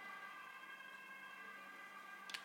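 Faint sirens of several ambulances wail steadily for the whole stretch, heard through an open window in Stockholm, a sustained tonal whine with no voices, and a brief sharp click right near the end.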